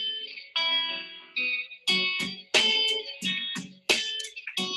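An acoustic rock song played live at an unplugged performance in New York, with bright, ringing guitar chords strummed in strong rhythmic bursts, loud, with no voices.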